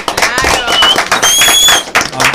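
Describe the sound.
Loud, dense applause from a crowd welcoming a director onto the program, with shrill whistles and cheering voices rising over the clapping before it tapers off.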